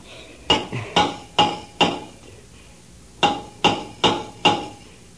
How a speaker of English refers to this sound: Take the hammer and answer signals.